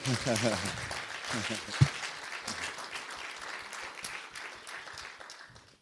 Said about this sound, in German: Aber ihr habt eine tolle Übersetzerin. Geben wir ihr mal einen Applaus.